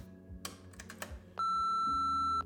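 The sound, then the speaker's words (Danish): Several quick plastic clicks of answering machine buttons being pressed, followed by a loud, steady electronic beep lasting about a second. Clear, with no voices. “jeg har faktisk en telefonsvar.”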